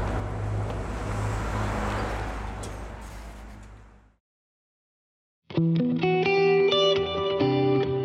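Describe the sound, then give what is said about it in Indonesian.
A school bus arriving, its engine rumbling with a steady low drone and broad hiss for about four seconds, then fading to silence; tonal music starts after a short pause. “Eh, bis sekolahnya udah dateng tuh.”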